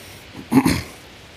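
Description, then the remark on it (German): A single short sheep bleat, breaking into two quick pulses, moderately loud against a quiet outdoor background with no one talking. “Und äh, wir nähern uns den Schafen. Vielleicht könnt ihr sie schon hören.”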